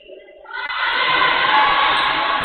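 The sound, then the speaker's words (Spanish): A large crowd at a championship game chants "Nafarroa" (Navarra) together, swelling within the first half second into a loud, sustained roar of many voices that holds steady to the end, with no clear speaker standing out. “Nafarroa, Nafarroa. Nafarroa. Sí, eso gritan.”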